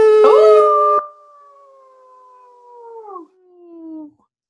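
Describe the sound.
A single wolf howl rings out alone, starting with a loud, rough burst, then stretching into a long, wavering tone that slowly falls and breaks twice before fading out.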